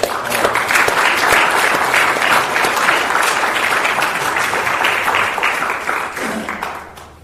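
An audience breaks into sustained, dense applause for two people's work on the AA Beyond Belief website, many hands clapping at once in a steady, loud wash that holds for several seconds before tapering off at the end.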